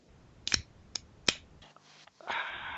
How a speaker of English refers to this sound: That is me opening my can, also of Bud Light. So, chin chin.